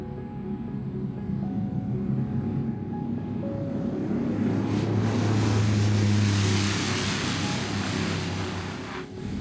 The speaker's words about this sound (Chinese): 接下来就带大家回到飞机准备开始滑行的时候。